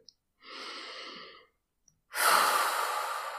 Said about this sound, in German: Du merkst, etwas stresst dich oder wird dir zu viel, macht dich eng. Du könntest Folgendes machen. Erst einmal tief durchatmen.